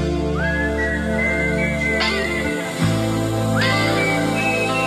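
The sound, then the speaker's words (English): A clean, pure-toned whistled melody with upward-sliding notes plays in a song over a dense, steady instrumental backing, loud, with no voices. “That sounds a little too pure to be uh, just straight whistle.”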